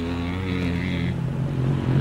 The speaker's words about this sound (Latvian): 49 mašīnas dodas cīņā 350 kubikcentimetru klasē.